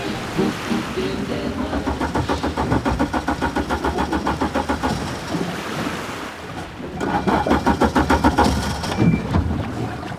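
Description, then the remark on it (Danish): A ship's engine cranks over with a rapid, rhythmic chugging that falters, pauses briefly, then turns over again, set against a steady wash of wind and water; the engine of a ship carrying researchers at the Kalkgrunden off Grenå is being started again. “Hvis motoren ikke kommer i gang igen, skal de trækkes ind og kommer ikke ud at dykke.”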